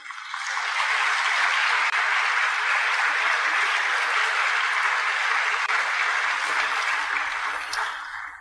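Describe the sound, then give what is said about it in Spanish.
A church audience bursts into sustained applause for a woman invited to come forward, dense steady clapping that swells in quickly, holds evenly for several seconds, then tapers slightly at the end, with no voices over it. “Aplauso para”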